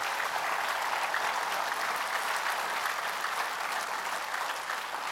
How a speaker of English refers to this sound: Let's give them a hand for helping us with that.